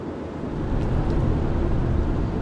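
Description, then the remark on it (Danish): A steady, low rumbling drone of a car driving across Sprogø in the middle of the Great Belt, Denmark, heading to Suserup Forest, heard from inside the cabin, with constant road and engine noise filling the low end and no voices. “Vi sidder i bilen nu. Vi er lige på vej hen over Sprogø, ude midt i Storebælt, på vej mod Suserup Skov,”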